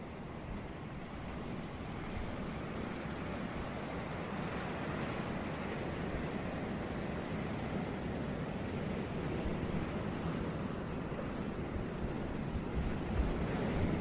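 Ocean waves wash in a steady, continuous roar of surf, with a broad rushing texture and some wind rumble, sustained throughout with no voices present.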